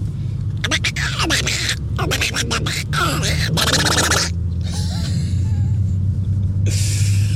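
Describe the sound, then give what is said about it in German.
A voice does a raspy, sputtering Donald Duck impression in quick, buzzing bursts, fairly loud, followed by a few softer, hissy squawks toward the end. “Mein verborgenes Talent ist, ich kann wie Donald Duck sprechen.”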